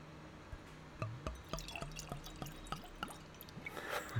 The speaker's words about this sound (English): I use a clean Glencairn glass, which is a whiskey nosing glass, allows you to really see and experience the spirit. So I've got my clean Glencairn, let's go for a pour.